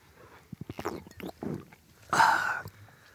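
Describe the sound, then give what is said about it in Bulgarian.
A few quick gulping swallows, followed by a breathy, satisfied exhale after someone takes a sip of a drink. No talking. “Секунда, глътка.”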